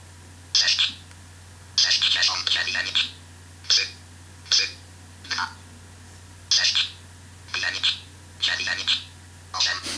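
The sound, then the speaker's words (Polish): A memorised phone number is quickly typed on a phone's numeric keypad: about ten short, bright, hissy bursts in quick irregular groups, some tightly clustered, over a faint steady low hum, with no one talking. “Już tego numeru nauczyłem się na pamięć, jak go poprawnie wstukać, dlatego tak szybko mi to się udało.”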